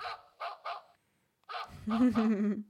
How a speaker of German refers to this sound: Hund. Hund.